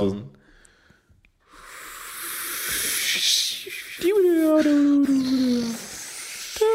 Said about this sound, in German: So klingt das. Schön auch. Ruhig. Herrlich. Weißes Rauschen.